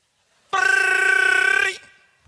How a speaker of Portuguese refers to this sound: e no meio da música toca o despertador